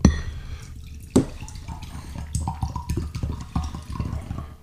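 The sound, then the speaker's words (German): Still water is poured into a glass, a steady gurgling trickle with small clinks and splashes, rising slightly in pitch as the glass fills, with no talking. “Schenk uns mal ein bisschen Stilles ein.”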